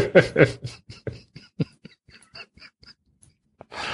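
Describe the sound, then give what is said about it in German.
Computer keyboard typing: a quick, irregular run of light key clicks, moderately quiet, framed by louder bursts of noise at the start and end. “Dann hört äh. die Tastatur im Hintergrund.”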